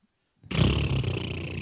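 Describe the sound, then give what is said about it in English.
After a brief silence, a voice makes a loud, raspy, rumbling drone imitating an exhaust with a hole in the mid pipe, holding it steady without a break until the end. “I have a hole in the mid pipe.”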